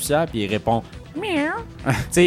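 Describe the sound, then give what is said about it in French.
A voice imitates a cat's meow once, a drawn-out rising and falling whine set between bursts of talking and laughter. “C'est très japonais, puis des fois, elle parle à son chat, tu sais, puis elle fait comme Ah, euh, j'ai des problèmes.”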